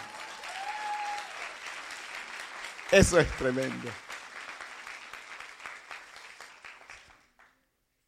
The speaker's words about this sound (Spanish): Si le va a aplaudir, apláudale.